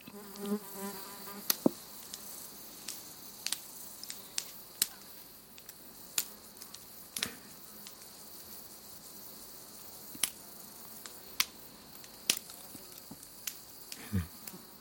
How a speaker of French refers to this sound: On dirait un feu de cheminée. Hein. On se croirait au coin du feu, mais c'est le genêt qui crépite. C'est le genêt qui crépite, qui libère ses graines, euh, lorsqu'il fait bien, bien chaud.